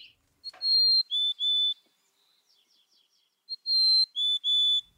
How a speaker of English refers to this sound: This is a mountain chickadee from the Sierra Nevada. And here's uh, the same species, a mountain chickadee from another population.